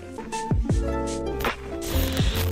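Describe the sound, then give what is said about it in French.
A brief musical jingle plays on its own: sustained synth chords that shift a few times, punctuated by swooping downward pitch bends and bright whooshing bursts, loud. “c'est ce que nous allons découvrir au travers de cet épisode, mais avant, jingle.”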